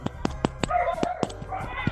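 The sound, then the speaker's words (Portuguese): Dogs fighting, with a quick series of sharp, loud barks about every fifth of a second and a higher whining, snarling tone running between them. “Olha os cachorros tretando agora, mano.”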